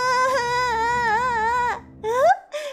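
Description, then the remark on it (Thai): A princess, having locked a door, cries loudly: a sustained wail with a wavering pitch, followed by a couple of shorter rising sobs after a brief break. It fills the whole moment on its own. “เจ้าหญิงได้ลั่นกรประตูอีกครั้ง แล้วเริ่มร้องไห้เสียงดัง”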